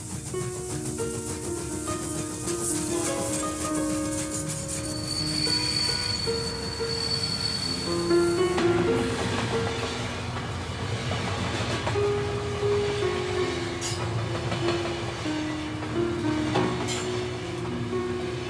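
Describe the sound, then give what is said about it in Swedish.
An overcrowded train of wagons carrying deportees to a concentration camp rumbles into motion, its wheels grinding and squealing on the rails with a high metallic whine, then settling into a steady clattering roll. Loud, with no talking. “Tåget började röra sig och jag hade fortfarande ingen aning om vart vi var på väg.”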